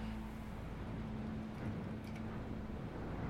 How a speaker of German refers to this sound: Er bohrt wieder in die Wand rein, während du sprichst.